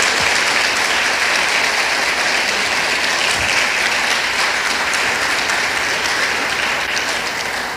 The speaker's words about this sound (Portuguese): Uhul! Aplaude o nome de Jesus.